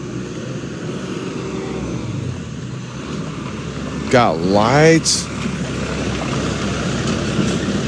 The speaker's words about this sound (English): And of course, here comes a fucking dump truck or something.